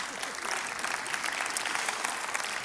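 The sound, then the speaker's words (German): Steady audience applause, a dense wash of many hands clapping at an even, sustained level for a few seconds with no voices standing out. “Applaus!”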